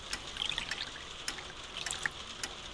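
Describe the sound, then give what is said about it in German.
Freshly heated water pours steadily into a cup for tea for about three seconds, a soft continuous trickle with small splashy droplet sounds, fairly quiet, with no talking. “Auch einen Tee? Ich habe mir gerade etwas Wasser heiß gemacht.”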